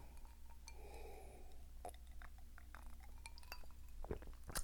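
A glass of Hennessy cognac clinks several times at irregular intervals, the taps sharp, over a steady low hum, with a soft swirling swish near the start.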